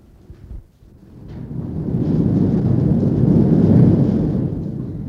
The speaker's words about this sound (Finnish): Niin, tämä ääni, jonka me juuri kuulimme, johtui siitä, että tornin kattoa siirrettiin uuteen asentoon.